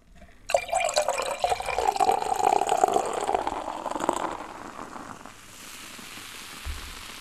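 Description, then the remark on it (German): Beer is poured into a glass with a steady splashing gush for a few seconds, then settles into a soft crackling fizz of bursting carbonation bubbles. “Also wer jetzt ganz genau hingehört hat, der hat eben gehört, wie diese Kohlensäurebläschen so richtig heftig zerplatzen und wie dann diese schöne Aromatik diesem Bier entweicht.”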